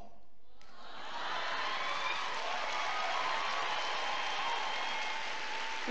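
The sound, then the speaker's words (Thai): A crowd claps softly and steadily, the dense patter of many hands starting after a brief quiet moment and continuing evenly for several seconds without anyone speaking. “คุณรู้ไหมผมนั่งฟังอยู่ข้างหลังเลยนะ เหตุเหตุผลหลักๆเลยนะที่คุณยังไม่เป็นยี่สิบเปอร์เซ็นต์เพราะรู้ไหมปบมือเบา”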